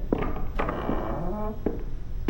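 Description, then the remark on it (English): Three solid knocks on a door at midnight, spaced unevenly about half a second to a second apart, each a dull thud over a faint tonal background. “It is midnight when Veronica hears three knocks on her door.”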